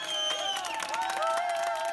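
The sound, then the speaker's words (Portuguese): Medical staff in Spain applaud as part of a coronavirus field hospital closes after its last patient is discharged, dense overlapping claps with cheering voices and sustained whistle-like tones running through, fairly loud and continuous for the whole two seconds. “Sob aplausos da equipe médica, a Espanha fechou parte de um dos seus hospitais de campanha.”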